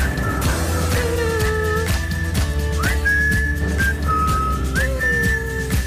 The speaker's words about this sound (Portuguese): Isto é lindo. É o assobio.